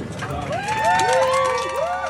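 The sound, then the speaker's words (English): Airplane passengers on a US flight applaud a crew member's announcement that the federal mask mandate has ended, with steady rapid clapping and rising, swooping whoops and cheers over a low cabin hum. The sound stays fairly loud throughout. “That's a crew member on a flight announcing the change to applause.”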